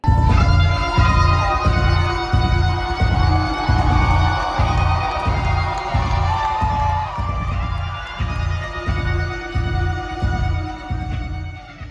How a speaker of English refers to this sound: Next, kick in searing guitar sounds to the crowd's delight.